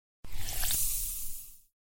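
A single wet, squishy squelch lasting just over a second, from wet socks inside shoes, fairly loud with a hissy, watery texture and no voices.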